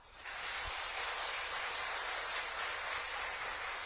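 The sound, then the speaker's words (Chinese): A crowd applauds for the Buddhist monk Venerable Shenghui, a dense, hissing wash of clapping that rises quickly and holds at an even loudness to the end, with no voices heard. “所以我们要一位圣会大和尚，给我们鼓掌一下。”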